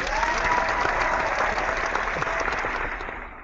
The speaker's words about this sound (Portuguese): Uma salva de aplausos!